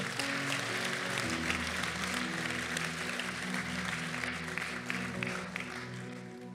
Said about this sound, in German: Das war sehr, sehr powerful. Gib dir noch einmal einen Applaus.